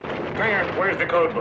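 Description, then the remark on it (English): A man talks urgently over a steady, rumbling wash of artillery shelling that fills the background, the heavy booms blending into a continuous low roar beneath his voice. “You know, when they're getting shelled, you can hear it in the background, and he's like, "No, you're not."”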